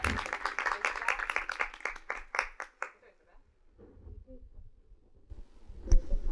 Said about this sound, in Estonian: poolteist tundi elavat põnevat arutelu juhatatakse meie osalejad sisse ise, meie teeme aplausi meie tänastele arutelu juhtidele ja need on